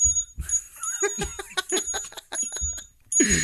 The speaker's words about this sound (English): Could we officially call this the the sarcastic bell? I think the sarcasm bell is even better.